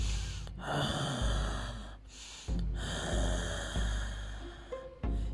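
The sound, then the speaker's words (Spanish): A voice imitates heavy, raspy breathing, like someone breathing right beside the ear: four or five long, loud, noisy breaths in and out, each separated by a brief pause, with no words spoken. “Yo cerré mis ojos y me metí debajo de las cobijas y sentí como alguien me respiraba aquí al lado de la oreja, así como un...”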